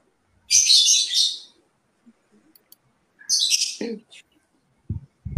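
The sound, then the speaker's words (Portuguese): A small bird from Guarulhos chirps in two quick bursts of bright, high twittering, fairly clear, with a short quiet gap between them and a brief voice at the very end. “Esse passarinho é português ou é de Guarulhos, não, é, é de Guarulhos.”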